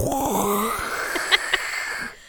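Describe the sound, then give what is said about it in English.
A man makes mouth sounds imitating a spaceship roaring through space, a breathy, droning whoosh with a sliding pitch that holds steady for about two seconds before cutting off abruptly. “When we see the ship roaring through space, I swear to God, they foley the ship with just a dude making mouth sounds.”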